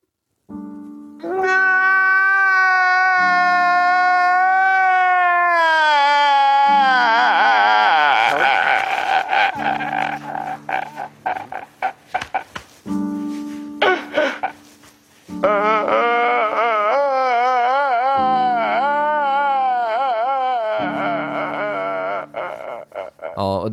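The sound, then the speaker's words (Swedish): A man crying and sobbing, from the American TV series Intervention, in long, loud, wavering wails that rise and fall in pitch, broken by shaky breaths, over a steady low tone underneath. “jag tycker det, det, det, finns många nivåer i det här grinet.”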